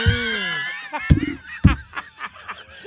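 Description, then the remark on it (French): A female duck quacks: a drawn-out nasal call, then two loud raspy quacks and a quick run of softer, chattering ones trailing off. “Ah, la canette, là.”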